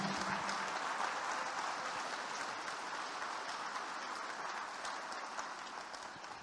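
A church audience applauds for Jesus, with dense overlapping clapping that stays loud and even throughout and tapers only slightly toward the end, with no voices standing out.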